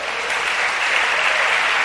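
An audience breaks into steady, sustained applause for the Lord, a dense wash of many hands clapping at an even loudness throughout, with no voices standing out above it.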